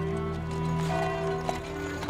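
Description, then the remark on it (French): Hooves of black horses clip-clop faintly as a horse-drawn ambulance wagon of Grosse Île rolls along and arrives at a hotel, the steps soft and irregular beneath a steady low hum, with no voices present. “Un wagon tiré par des chevaux noirs, l'ambulance de la Grosse Île, arrive à son hôtel.”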